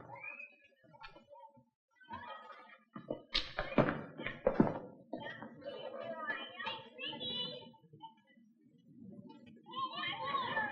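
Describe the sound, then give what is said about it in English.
Distant children's voices rise and fall in a busy schoolyard jumble of shouts and chatter, with a few dull thumps and knocks mixed in, as kids run around yelling at play. “Start in the schoolyard, like those kids down there, running around, yelling.”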